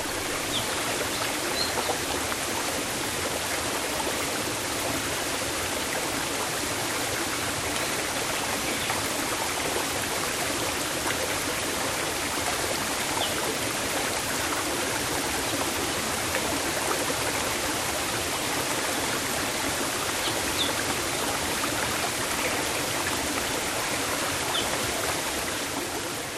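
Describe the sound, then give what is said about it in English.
A steady, full rush of falling water from a small cascade in the Hawaiian jungle pouring into a stream beneath a wooden bridge, recorded by Toby Mountain, continuous, with no pauses or voices throughout. “But follow a narrow path through the jungle, and you'll find a much smaller cascade feeding a stream beneath a wooden bridge.”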